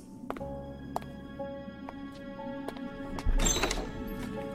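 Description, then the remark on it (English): Front doors are flung open with a couple of sharp clacks and a heavy thunk, followed by a brief rushing, rattling burst as they swing wide. Fairly loud, with no voices. “And after tossing them open, he looked back at me.”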